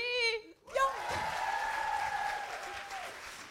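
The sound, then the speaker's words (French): A short shouted note gives way to an audience bursting into steady applause and cheering, with whoops rising over dense clapping that carries on for about three seconds. “Faites du bruit”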